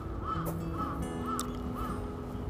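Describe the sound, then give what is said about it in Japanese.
A crow caws four times in a steady, evenly spaced series, fairly close, over a constant background hum of outdoor noise with no voices. “ねえカラスさん久しぶりに帰ってきました”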